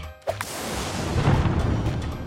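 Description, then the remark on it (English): A thunder and lightning sound effect accompanying a player's serve in a game: a sudden sharp crack followed by a loud, sustained rolling rumble that carries on for about two seconds, with no voices. “Oh, wow, she really does serve lightning and thunder, but I got it!”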